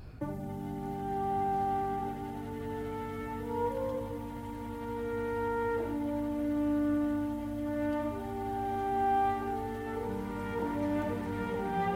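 Sustained orchestral brass, led by horns, plays the Star Wars Force theme as a slow, broad melody of long held notes that shift in pitch, steady and full throughout with no voices.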